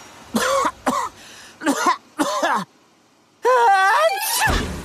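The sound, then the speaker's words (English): A voice acts out a sneeze: several short, breathy, wheezing build-ups, a pause, then a longer rising cry that bursts into a sharp, noisy 'choo' at the end. “Bless you!”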